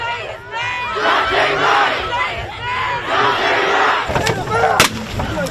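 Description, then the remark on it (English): A large, agitated crowd of protesters outside the police department in Brooklyn Center, Minnesota, shouts and roars continuously at night, punctuated near the end by several sharp, loud bangs from flashbangs fired by police and fireworks thrown by demonstrators that crack through the noise. “Demonstrators tried to climb the fence that now protects the police station and threw bottles and fireworks at officers. Officers then returning fire with flashbangs and rubber bullets.”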